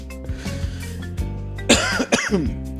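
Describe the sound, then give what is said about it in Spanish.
A person coughs and clears their throat: soft rumbling throat noises at first, then two harsh, raspy coughing bursts near the end, with no talking, from something stuck in the throat after downing a can of Red Bull in one go. “Bueno, trataremos de pilotearla porque me tomé una lata de Red Bull de un saque y tengo esta cosa pegada dentro de la garganta.”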